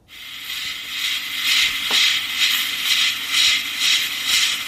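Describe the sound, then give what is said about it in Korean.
A rice cooker venting steam: a steady, bright hiss that swells and fades in rhythmic pulses, about twice a second, with a faint click partway through. No voices. “밥솥에 그, 예, 김 새는 소리입니다.”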